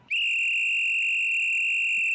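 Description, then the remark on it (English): A single shrill whistle blast, loud, held steady for about two seconds without wavering. No voices are heard. “Damn, that's a good whistle.”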